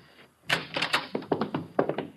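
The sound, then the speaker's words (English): The door to Ahmed's room in a rooming house is opened to enter without knocking, with a quick run of solid clunks and rattles, like a latch and handle being worked before it swings. No one speaks. “we will enter without knocking.”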